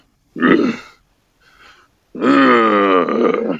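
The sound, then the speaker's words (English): A voice makes a guttural, growly creature laugh: a rough grunt, a faint breathy pause, then a long, loud, rumbling vocalization with wavering pitch, alone. “So finding your your creature's laugh, like what that sound is for them, is super important.”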